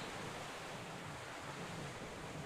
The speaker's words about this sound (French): Puis bons amis c'est la mer.